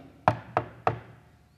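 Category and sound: impact, knocking on a door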